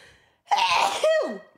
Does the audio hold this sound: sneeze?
yes